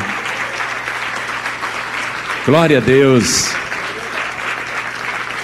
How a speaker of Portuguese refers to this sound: Vamos aplaudir mais o nosso Senhor. Isso.